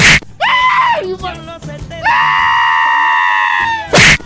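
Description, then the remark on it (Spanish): A person imitates a puppy's yelp with two drawn-out, high-pitched whining cries, loud, framed by short breathy bursts at the start and end. “Como perrito grito.”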